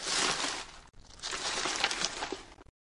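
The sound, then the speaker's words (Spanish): Continuous rustling and crinkling of papers being rummaged through in a trunk pulled out from under a bed, with a brief pause partway before the shuffling resumes, busy and fairly loud, then stopping abruptly. “Está lleno de papeles.”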